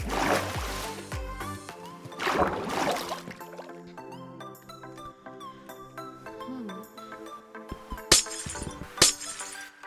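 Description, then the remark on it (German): Several crisp video game glass-breaking sounds as glass blocks are mined away, each a short bright shatter, repeating at uneven intervals over a steady musical background, with a couple of sharper crashes near the end. “Glas abgebaut. Das sollte ja mal ein Aquarium werden.”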